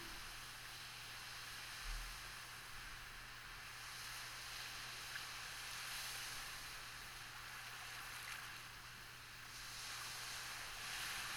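A steady, hissing wash of ocean surf with slow, gentle swells rising and falling, like waves rolling onto a beach. No one speaks.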